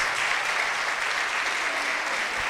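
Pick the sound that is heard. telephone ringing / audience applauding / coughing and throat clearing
audience applauding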